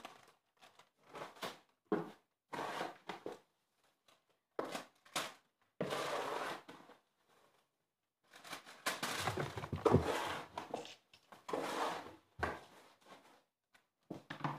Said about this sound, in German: Komm raus aus dem Kleiderschrank, kleiner Pisser, ey. So, jetzt machen wir die Schranktüre zu.